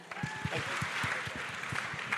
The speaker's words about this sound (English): thank you so much for joining us on FinTech Insider. Please give them a huge cheer.